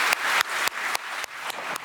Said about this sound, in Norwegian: applaus der altså for eh, Zelenskyj, som jo har talt til en rekke nasjonalforsamlinger eh, verden over de siste ukene. Denne uka eh, bl.a. i danske Folketinget og på Stortinget på onsdag.